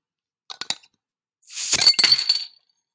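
opening a beer bottle

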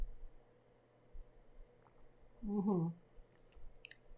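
drinking water

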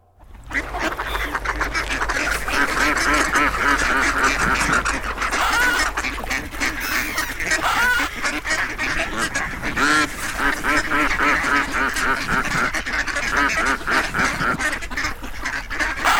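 ducks quacking

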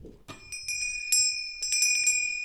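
ding-dong bell chime

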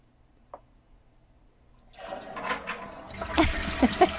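toilet flush sound effect

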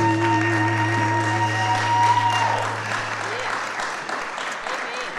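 audience hand clapping

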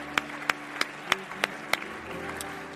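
audience clapping hands

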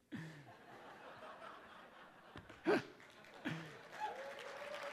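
audience cheering and applause

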